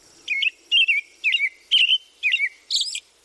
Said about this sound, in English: This is the call of the American robin, courtesy of the Ornithology Lab at Cornell University.